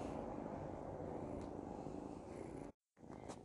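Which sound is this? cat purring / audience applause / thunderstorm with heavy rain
cat purring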